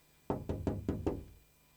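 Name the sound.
knocking on a door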